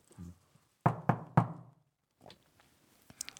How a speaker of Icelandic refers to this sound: hér er verið að banka